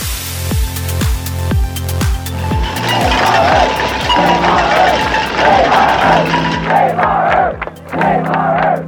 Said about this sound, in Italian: Questo è il suono che fanno latte e lattine calpestate da migliaia e migliaia di piedi questo è il frastuono generato da una folla di 20 milioni di persone che sono scese in strada negli Stati Uniti in difesa dell'ambiente. Era il 22 aprile 1970